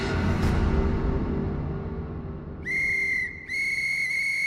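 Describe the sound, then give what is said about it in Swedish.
A rumbling low background gives way to two sharp, high-pitched whistle blasts, the first short and the second held longer, piercing and loud with bright overtones. “Vad händer? En visselpipa?”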